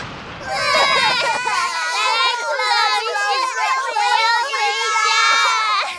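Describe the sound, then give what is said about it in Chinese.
Several children wail loudly together in overlapping, high-pitched sobbing cries that rise and fall continuously for several seconds, sounding like a voice performance of a group crying. “孩子们听了一起呜哇大哭了起来。”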